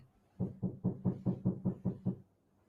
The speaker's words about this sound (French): Attendez, excusez-moi, quelqu'un qui tape à la porte.